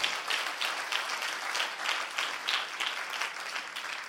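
An audience applauds steadily, a dense wash of many hands clapping at once with no pauses, holding an even loudness for the whole stretch and no voices standing out.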